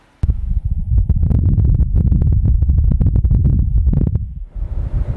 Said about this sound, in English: Wind blowing on Mars.